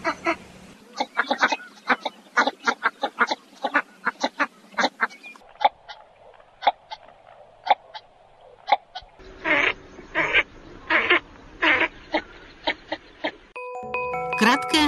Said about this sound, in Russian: Широконоска.